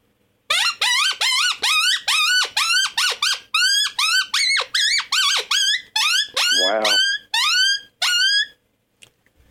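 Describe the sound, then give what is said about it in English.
A rapid series of high, whiny yelps and squeals, made with a hand call imitating a distressed pup, repeated in quick bursts for several seconds, loud with no talking. “But nonetheless, let's hear let's hear the pup sound. Distress pup. I'll try it. I don't normally do it on hand call, but I'll try it.”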